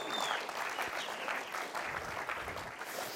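Steady applause from an audience, a dense patter of many hands clapping continuously at an even level throughout, with no voices standing out.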